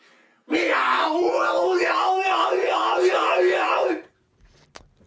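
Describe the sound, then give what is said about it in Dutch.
A person lets out one loud, sustained yell lasting several seconds, strained at full voice, then it cuts off into near silence with faint shuffling. “Ik denk dat jij het iets te hard schreeuwt.”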